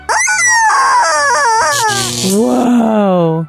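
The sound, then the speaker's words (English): A woman imitates a chicken with loud, drawn-out squawking clucks whose pitch wavers and slides, filling the few seconds with no other talk. “which forces her to think she's an animal. Uh-uh. In this case, a chicken.”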